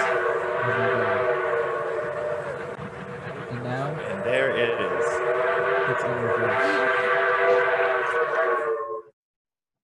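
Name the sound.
train whistle sound effect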